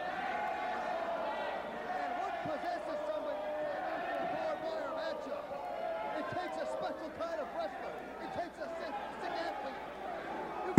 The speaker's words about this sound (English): Double slams, alternate alternate teams slamming each other.